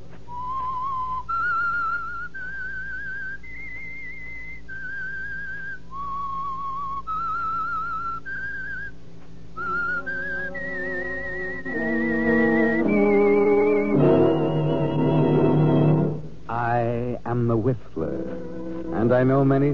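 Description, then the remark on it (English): A lone whistler carries a slow, eerie melody of sustained notes stepping up and down, clear, as the theme of the Signal Oil radio program The Whistler, before fuller orchestral music swells in underneath and takes over. “That whistle is your signal for the Signal Oil Program, The Whistler.”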